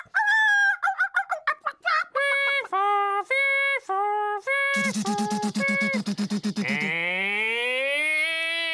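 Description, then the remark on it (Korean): A loud run of rapid duck quacks gives way to a few drawn-out rooster crows, followed by a fast mechanical rattling burst and a rising, siren-like wail, with no talking; apparently an alarm sounding from the neighbouring home at about 9:30 in the morning. “갑자기 오리 닭 그리고 구급차와 따발총과 사이렌 공습이라니 이게 너무 연관이 안 되는 검색 거잖아요 아 역시나 그 소리의 진원지는 옆집이었습니다 아이고, 시계를 보니까 오전 9시 30분 에?”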